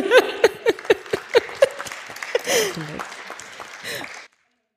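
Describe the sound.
A small audience claps: about seven or eight sharp, evenly spaced claps in quick succession, fading into scattered claps under voices and laughter before the sound stops abruptly.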